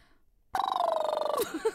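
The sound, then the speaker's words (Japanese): After a short silence, a voice does a loud, buzzing lip trill made with the mouth to imitate a ringing phone, standing in for a missing phone sound effect during a comedy routine rehearsal. It holds one steady fluttering pitch for almost a second, then stops abruptly. “ちょっとうちら今ネタ合わせするからあの、うん、あの口でプルプルやってくれへん”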